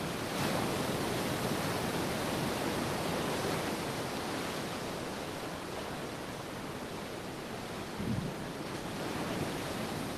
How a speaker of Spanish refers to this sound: Comenzamos este 3 de agosto mirando al mar y escuchando el oleaje.